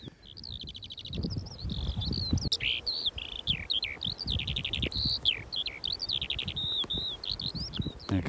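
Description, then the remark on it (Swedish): A Eurasian skylark sings over open heathland at Jormo in April, already singing for its second brood, a continuous, rapid stream of high, buzzy trills and chirping warbles without pause, over a low rustling, fluttering rumble underneath. “Den sjunger redan för andra kullen, för andra häckningen, den här sånglärkan.”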